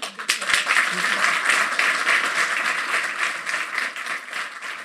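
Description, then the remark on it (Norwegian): An audience applauds a speaker steadily for several seconds, dense overlapping claps forming a continuous, fairly loud wash of sound that holds without pause. “Jeg syns at han fortjener virkelig en eh, fin applaus.”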